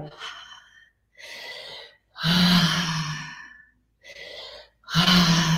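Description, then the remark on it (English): Forceful breaths repeat in a steady rhythm during a round of 30 breaths in a breathing exercise, a series of loud, airy inhales and exhales, some carrying a voiced sighing tone, with short pauses between them. “Power up your breath with the inhale. Relax your exhales.”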